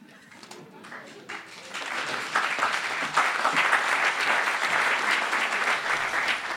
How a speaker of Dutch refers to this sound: Het applaus klonk voor Rebecca Schiffs.